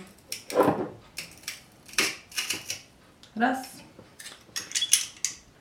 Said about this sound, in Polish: Na zawiasach z góry spuszczam na niego tłoczek i wciskam zawartość prosto do słoiczka z majonezem.